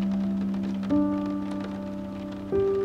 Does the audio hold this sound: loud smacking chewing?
no